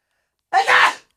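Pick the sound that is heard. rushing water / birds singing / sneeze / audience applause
sneeze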